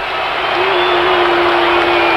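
A large concert crowd roars in dense, continuous disapproval, booing and whistling at a female singer performing a cappella; the booing has gone on for about a minute and a half. A thin whistle rises above the din, loud and unbroken throughout, with no individual voices standing out.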